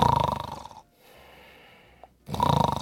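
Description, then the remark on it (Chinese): A person imitates the snoring of sleep apnea with two loud, rattling snores separated by about a second and a half of near silence. Each snore has a rough, fluttering pulse. “哦，我们打呼不是这样吗？”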